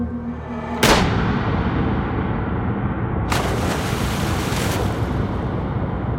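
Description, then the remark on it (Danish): A single sharp rifle shot, fired by a mutineer leaning out of a ship's window with Captain Blom's own rifle, cracks out near the start over a steady roar of ocean surf, followed a few seconds later by a loud wave crashing and washing on. “Og helt kølig griber mytteristen Bloms eget gevær – læner sig ud af vinduet og sigter.”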